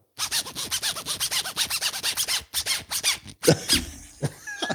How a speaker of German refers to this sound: Okay, ich denke jetzt was für die Kommentare. Das, ist was für die Kommentare. Wer weiß, was Götz auf seinem Reißverschluss uns vorgespielt hat.